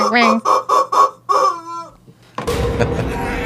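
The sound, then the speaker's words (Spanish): A chicken clucking sound effect plays in four quick rhythmic bursts, then one longer, drawn-out cluck before falling briefly quiet. A dense, noisy wash of sound follows. “Ah, pollo matón.”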